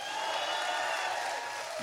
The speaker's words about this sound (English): Mucho mejor. Way, way better. These little golf claps.